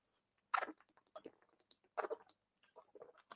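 Mouth sounds of someone drinking water: a few wet gulps and swallows with small clicks and smacks between them, fairly quiet and irregular, with no talking.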